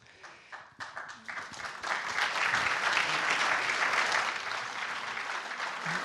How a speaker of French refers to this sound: Alors, j'aimerais bien que vos applaudissements soient entendus parce que c'est quelque chose qu'on cherche depuis longtemps